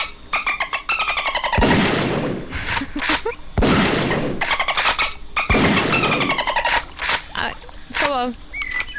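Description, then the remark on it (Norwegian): A dolphin sound effect: rapid trains of clicking chirps alternate with loud, breathy bursts, ending in a wavering high whistle. It plays alone, fairly loud, with no talking. “Jeg har ikke så mange fristende nye lyder til deg, men jeg har en delfinlyd.”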